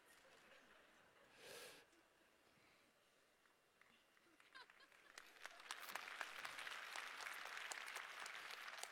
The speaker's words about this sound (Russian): Я не знаю, чего вы хлопаете.